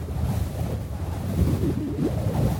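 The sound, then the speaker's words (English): A steady, loud rush of desert wind in Arizona blows and rumbles through the whole stretch, low and gusty, buffeting the microphone with no voices present. “The wind pulls at them.”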